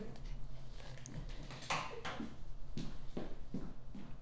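Three or four dull knocks on a door, spaced unevenly about a second apart, muffled and moderately quiet against a low room hum.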